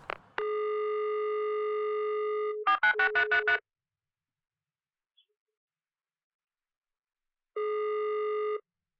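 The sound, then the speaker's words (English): On a phone call to Russia that gets rejected by an automated message, a steady electronic telephone tone holds for a couple of seconds, followed by a quick burst of rapid pulsing beeps, then silence before another steady tone sounds briefly near the end. “Every time I call, I get the same shit and then hung up on.”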